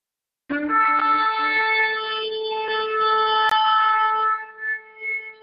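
A recording of a ram's horn shofar played as a sound bite on a computer: a single long, loud blast with a bright, brassy harmonic tone, held steady for about four seconds before breaking into a few shorter wavering bursts as it fades out.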